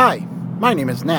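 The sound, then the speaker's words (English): A steady low engine rumble from inside a car being driven home from work in autumn fills the background, with a faint fan-like hiss from the heater running, while a person speaks over it. “and the sound you hear in the background is me driving home from work with the heater going.”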